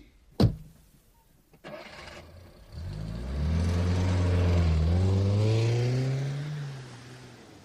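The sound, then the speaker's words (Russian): A sharp door-like thud, then a taxi's engine starts and revs, its pitch rising and falling as the taxi pulls away and fades slightly toward the end. No one speaks. “Ну что ж, едем на такси.”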